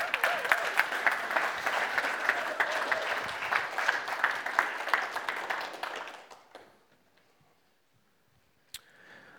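An audience bursts into dense, sustained applause as four young people are invited up onto a stage, many hands clapping loudly for about six seconds before it quickly dies away, leaving near silence with a brief click near the end.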